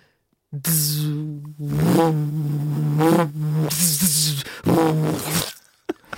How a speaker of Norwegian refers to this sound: vil dere høre min Jeg har en sånn uh, lydeffekt av uh, lyssverd ja